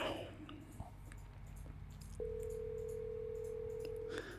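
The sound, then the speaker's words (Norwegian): A phone call rings out with a single steady ringback tone lasting about two seconds over a low background hum, with no one picking up; the call goes from Norway to a man abroad. “Ok, men uh, jeg tenker vi bare legger på nå, så får vi håpe at han ringer tilbake når han ser at vi har ringt, da.”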